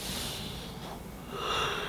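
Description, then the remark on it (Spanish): A breathy yawn drawn out over about two seconds, airy and slightly strained, swelling louder toward the end before trailing off, with no talking. “ay, güey, perdón, disculpe el bostezo, pero el hambre me causa sueño.”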